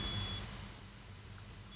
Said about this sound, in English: The fire alarm's going off here.